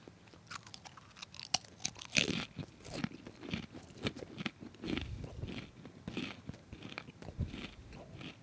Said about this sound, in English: I don't know. It's just someone having a good time. It's like seeing a golden retriever be happy. Like I'm just eating pretzels and I'm happy.